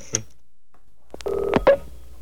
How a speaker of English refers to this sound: So dial the number there.